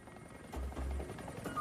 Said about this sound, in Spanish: State Line, Nevada, año 1980. Un helicóptero del FBI vuela por la autopista 50 buscando una señal.